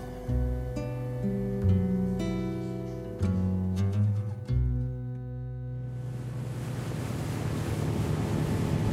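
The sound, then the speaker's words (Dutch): Instrumental music plays for about six seconds, then gives way to a steady, loud rush of wind and surging water aboard a ferry crossing the Río de la Plata from Montevideo to Buenos Aires. No one speaks. “Ik vaar op de boot terug van Montevideo naar Buenos Aires.”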